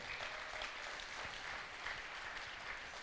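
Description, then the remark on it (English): A crowd claps steadily in a dense, sustained burst of applause for the 65 people on the team, at an even level throughout, with no voices standing out. “So I just think I just want to give a big round of applause to everyone that's on team today.”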